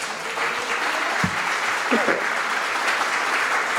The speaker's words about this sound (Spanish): Oh, dele un aplauso fuerte al Señor.